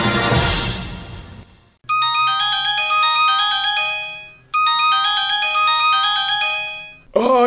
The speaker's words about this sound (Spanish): el teléfono justo cuando debo preparar mi homilía.